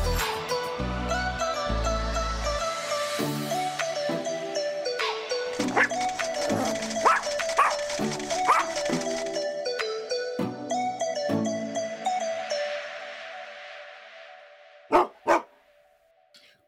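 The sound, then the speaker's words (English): Short, sharp dog barks pop out over bright electronic music, several in a quick rhythmic run midway, then two loud barks near the end as the music fades. “You are our celebrity pup of the week. Woof, woof.”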